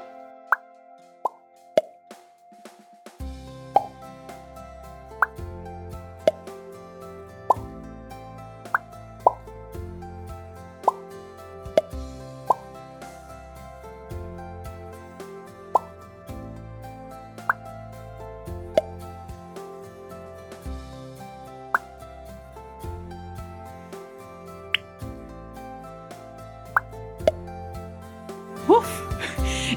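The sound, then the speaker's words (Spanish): Bubbles pop one after another at shifting pitches, some high and bright, others low, each a short crisp plop standing out over a steady background of soft music; higher-pitched pops mark bubbles higher up, lower-pitched pops bubbles lower down. “Dependiendo del sonido de la burbuja tendrás que subir o bajar. Entre más agudo sea el sonido de la explosión, la burbuja estará más alta y entre más grave tendrás que agacharte más para explotarlas.”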